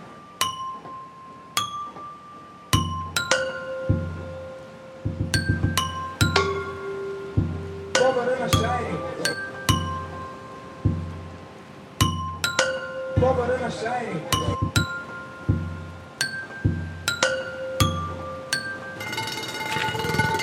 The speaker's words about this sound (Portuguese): Ele pediu para eu gravar o barulho de uma tampa de ferro fundido da Eletropaulo. Vamos ver se a gente consegue uma versão mais silenciosa agora.